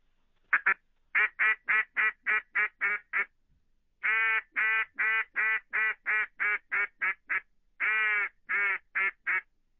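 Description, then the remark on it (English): A cane duck call about 20 years old is blown, producing rapid runs of mellow, evenly spaced quacks: a first series, a brief pause, then two longer sequences with no talking. “But this is a cane call. I'm going to blow it.”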